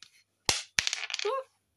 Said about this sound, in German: du darfst würfeln.